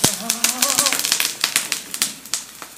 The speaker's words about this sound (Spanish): Yo estoy picando el tomate para lo que es el pico de gallo.